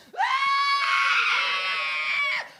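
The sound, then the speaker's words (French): A single long, sustained human scream while free-falling after jumping from a plane, loud, holding a steady high pitch for over two seconds before breaking off abruptly, with no other voices. “Pendant 30 secondes, c'était ça.”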